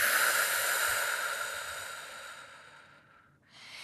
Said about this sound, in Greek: Βαθιά εισπνοή από τη μύτη και μετά εκπνέουμε από ελαφρά σφιγμένα χείλη σαν να αφήνουμε απαλά τον αέρα να βγει από ένα μπαλόνι. Εισπνοή. Εκπνοή.